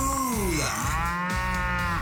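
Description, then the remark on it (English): A cow moos loudly, a long drawn-out low that bends in pitch, followed by a second rising call, with no talking; the sound is played for an identify-the-sound cash game on the radio station 98.5 The Bull. “It's time to win cash with Ty and Daniel and the sound of Moo”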